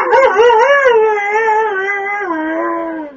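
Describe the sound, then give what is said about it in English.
A dog howls loudly in one sustained, wavering cry, its pitch rising and falling in a sing-song phrase that sounds like it's saying "I love you." “And that one line the dog did, I did hear.”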